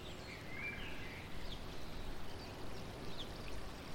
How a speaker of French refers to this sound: Ne serait-ce pas de l'eau Une fontaine, oui. Une fontaine. Alors que votre regard se rapproche de cette fontaine, de toute cette eau qui coule et qui galope.